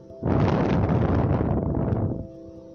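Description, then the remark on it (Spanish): A single long, forceful exhale through the mouth after a deep inhalation through the nose, as part of a breathing exercise: a steady rush of breathy air lasting about two seconds before fading to a quiet background hum. “Hagan una inhalación por la nariz profunda y larguen por la boca.”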